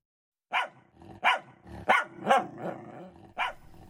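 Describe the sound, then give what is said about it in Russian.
The dog from apartment 302 of an apartment building barks about six times in an uneven rhythm. The barks are loud, sharp and harsh, with short gaps between them and no voices. “«Это собака из 302-й квартиры.”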